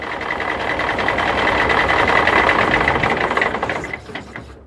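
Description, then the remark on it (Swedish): A bus engine rumbles steadily as the bus stops at a border checkpoint, with a rapid mechanical chatter and a thin high whine running through it, before the noise eases and drops away at the end. “Bussen stannade till vid gränskontrollen.”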